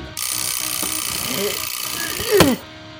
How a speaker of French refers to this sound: 8 heures, le réveil sonne.